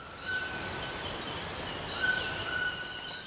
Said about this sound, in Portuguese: E vai ser ao som forte dessa queda d'água e desses pássaros que nós vamos continuar a nossa reflexão sobre alteridade, que foi o primeiro conceito que a gente começou, né?